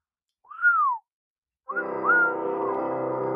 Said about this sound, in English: So I'm going to take it out with one of the most beautiful songs for my friend Dixie. That's right, Whistling Dixie.